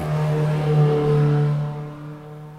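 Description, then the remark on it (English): A neighbor's car engine revs loudly with a deep, droning hum as it drives past a house on a busy road, holding steady before fading away toward the end. No one speaks. “when you're doing a podcast, you don't want the neighbors driving by like that”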